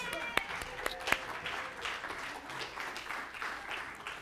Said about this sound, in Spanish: Pueden tomar asiento. Un aplauso para ellos.